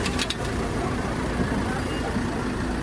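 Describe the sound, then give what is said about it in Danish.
A police car engine idles with a steady, low rumble that holds constant throughout, a few brief clicks near the start. “Jeg vil bare høre, hvorfor den går i tomgang, bilen.”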